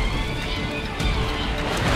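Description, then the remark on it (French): A steady, dense roar of two race car engines accelerating in the acceleration zone of a track, holding a constant loud level for the whole stretch with no voices over it. “Les deux voitures sont dans la zone d'accélération.”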